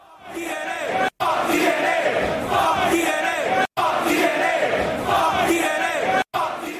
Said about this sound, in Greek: Έχουν μαζευτεί εδώ απ' έξω. Έχουν μαζευτεί εδώ απ' έξω τώρα κάτι, κάποιοι χούλς. Κάποιοι χούλιγκαντς έχουν μαζευτεί και φωνάζουν, ε, φωνάζουν έξω από το σπίτι μου.